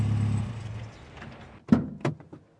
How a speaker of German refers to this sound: Langsam fuhr ein Auto die Einfahrt herauf.